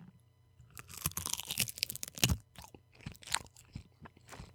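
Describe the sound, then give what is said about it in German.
Crisp crunching of a very thin dried nori seaweed sheet, a dense run of brittle crackles and snaps over several seconds, with one sharper loud crunch midway and no talking. “Das knirscht und knistert jetzt gleich.”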